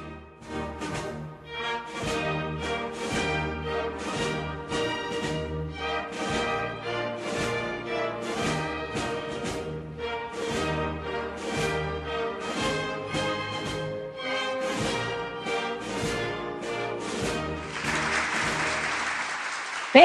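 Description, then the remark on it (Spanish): The national anthem of Costa Rica plays steadily at full volume, its stately melody carried by a band or orchestra, before a burst of applause and cheering rises over the closing bars. “Vamos a escuchar un poquito el himno nacional de Costa Rica.”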